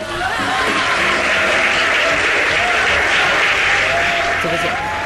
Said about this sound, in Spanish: ¿Cómo se llama el muchacho? Dante Vega. Fuerte el aplauso. ¿Crees que le pongamos un aplauso? Pongámosle un aplauso.